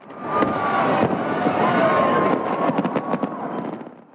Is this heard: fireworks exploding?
yes